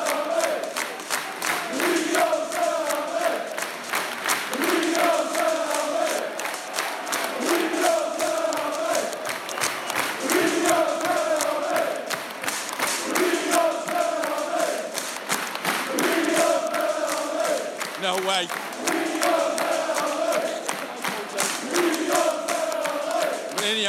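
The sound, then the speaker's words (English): A large crowd of away football fans at a United game chants loudly and rhythmically in repeated sung phrases, with cheering and a dense roar of voices without pause. “He'll be under no illusions as to the backing that he's got from the support.”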